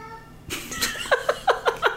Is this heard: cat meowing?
yes